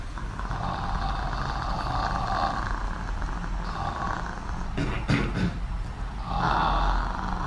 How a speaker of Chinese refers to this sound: 第一步呢，气泡音，这个是为了放松我们的喉咙，让我们的声带先处在一个震动的状态下。